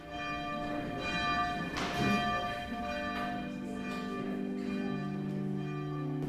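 A church bell at the Protestant education centre on the Hesselberg rings steadily at 8 o'clock for morning devotion, its rich overtones sustained and blending into a continuous resonant hum, with no voices present.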